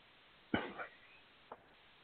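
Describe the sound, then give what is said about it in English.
A single harsh cough from someone who has sucked a cough drop down their throat bursts out and trails off roughly, followed a second later by a short, quieter cough. No one speaks. “Sorry, it had that sucked a cough drop all the way down my throat, dude.”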